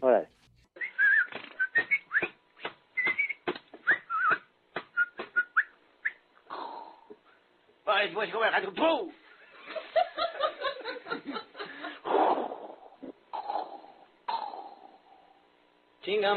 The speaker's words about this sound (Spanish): Oye, ¿tú, oye, ¿tú autorizaste esa cortinilla, Trino? Es muy vieja, es muy vieja. Ya la tenemos en la chora como en el, el 2000, eh, no, en el 98.